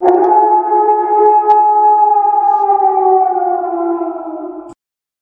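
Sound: wolf pack howling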